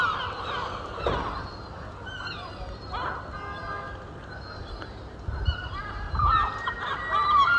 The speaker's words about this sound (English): Sat on the harbour as everything starts waking up. Of course, the seagulls have been awake longer than everybody else.